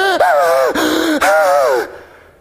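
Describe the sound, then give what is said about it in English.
A person imitates a gasp for air: three loud, strained inhalations in close succession, each rising and falling in pitch, with no other talking. “And the whole crowd was gasping along with him.”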